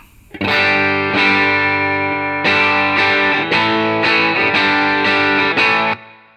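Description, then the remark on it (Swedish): An electric guitar, a new Strat with Ron Ellis 64S pickups, played through a UA Dream 65 amp-emulator pedal, lightly overdriven, strums about seven sustained chords in a steady rhythm, fairly loud and rich in harmonics, with no talking. “Som då däremot går in i den gamla vanliga eh, UA Dream 65-pedalen.”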